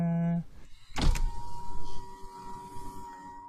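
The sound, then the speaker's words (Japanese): A window slides shut with a sharp clunk near the start, on a day of very bad weather, followed by a steady mechanical whir and faint rumble, with no talking over it. “ちょっと待ってね。今、窓開けてるんで。”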